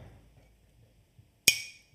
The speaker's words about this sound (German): Nahm die Gabel und machte ans Gläschen. Warte, krieg ich das hin mit der Tasse?